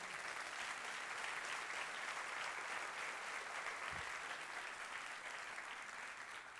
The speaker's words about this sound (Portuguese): Vamos aplaudir sim.